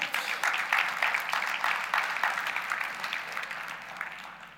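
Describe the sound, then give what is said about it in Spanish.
An audience gives a round of applause to the Lord, a dense, steady wash of many hands clapping at moderate volume, sustained throughout and slowly tapering off toward the end. “Si tú lo crees, dan un aplauso fuerte al Señor.”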